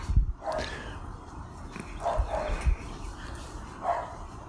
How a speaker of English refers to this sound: angry dogs next door barking, talking into the ether.